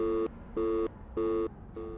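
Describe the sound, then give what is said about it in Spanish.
A telephone busy tone pulses steadily as a mobile phone call is cut off, short electronic beeps repeating about every half second with brief silences between, clear with no voices. “La comunicación se corta”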